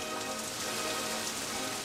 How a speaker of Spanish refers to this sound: Los hombres tienen que dormir al ras, aguantando como cae la lluvia, aguantando la humedad, es algo tremendo. No cesa de llover.